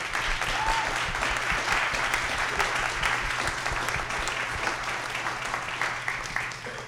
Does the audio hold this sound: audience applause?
yes